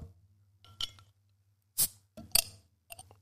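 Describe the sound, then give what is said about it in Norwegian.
Sounds of a glass bottle of Hennings pear cider being opened: a few sharp clicks and clinks, then a short fizzy hiss as the cap comes off, over a low steady hum. “Uh, nå skal jeg få høre en ekte når jeg åpner Hennings i eh, pære- og pensjonsfrukt eh, covid-kos-sider.”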